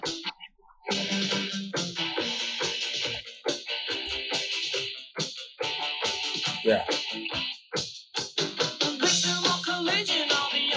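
An upbeat new wave song plays loudly and continuously from a YouTube video of kindergarten girls dancing, with a bright, busy mix and a driving, choppy beat that briefly drops out near the start. No one talks over it.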